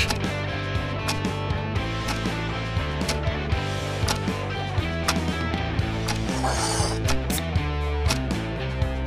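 A quiz countdown clock ticks at a steady, regular beat over a dense, sustained musical bed, holding a moderate level for about nine seconds with no talking.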